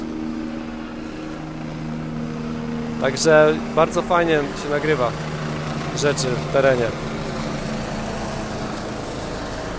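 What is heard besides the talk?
helicopter flying overhead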